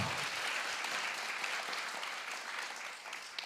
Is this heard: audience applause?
yes